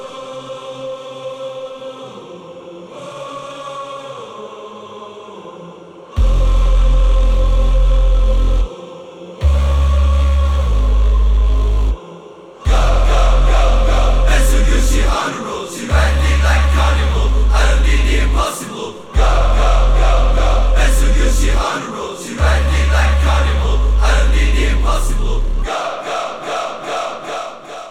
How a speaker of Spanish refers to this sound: Eran los gritos de los hooligans del Inter de Milán